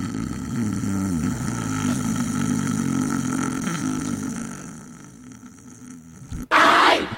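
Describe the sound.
A voice imitates loud snoring of someone dozing off at a music festival: a long, rattling, guttural rumble that drones on for several seconds, fades, and then gives way to a sudden bright burst of noise.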